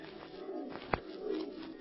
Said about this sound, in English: yes, that was just an old screech owl. Oh. Ah, there it is again. Well, screech owls don't make their home this far north. They must have been brought up here like the monkeys you mentioned.